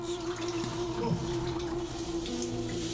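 Steady running water echoes through Kaskar Kur, the Bronze Age underground water system of Troy with hundreds of meters of tunnel corridors: a continuous wash of trickling and splashing under a low, constant hum, with no voices.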